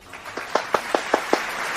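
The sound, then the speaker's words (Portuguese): A short run of about six sharp hand claps in a steady, even rhythm, moderately loud over a faint background hiss, with no voices; an applause sound effect. “Palmas para vocês.”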